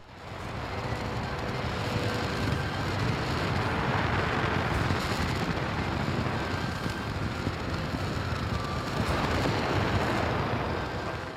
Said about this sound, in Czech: 18. února přišel čas na opakovaný test centrálního stupně nové americké rakety SLS.